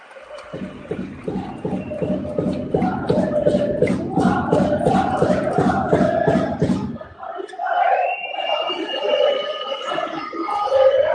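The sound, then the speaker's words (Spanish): A loud basketball arena crowd stands and applauds as Luka Doncic sits down, its clapping falling into a steady rhythm for about seven seconds, then giving way to higher, sustained chanting and cheering voices. “Se sienta Luca Doncic, aplaudido por parece que se su en pie.”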